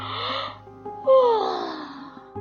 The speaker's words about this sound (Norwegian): Hver gang jeg gjesper, føles det helt umulig å avbryte det, som om det er noe jeg bare må gjøre. Det kan også være ganske deilig, for det er forskjell på et kosegjesp en sen søndagsmorgen og et slitent gjesp en marskveld jeg prøver å føre regnskap.